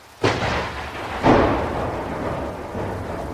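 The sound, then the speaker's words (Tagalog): Two loud thunderclaps crack, one near the start and another about a second later, each rolling into a low rumble over a steady wash of heavy rain. “Sigaw raw siya ng sigaw noon pero walang makarinig mas malakas daw ang kulog at kidlat at ang mabigat na buhos ng ulan kaysa sa paghingi niya ng saklolo.”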